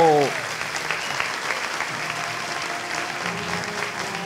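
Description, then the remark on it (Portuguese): Sustained audience applause, a dense steady patter of many hands clapping at even loudness throughout, with a brief tonal voice or sound fading out at the very start, welcoming a digital marketing speaker to the stage. “Salva de palmas para a metralhadora do marketing digital.”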